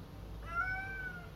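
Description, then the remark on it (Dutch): A single short cat meow, clear, rising slightly then fading, with a quiet low background hum and no voices. “Wat is dat, poes?”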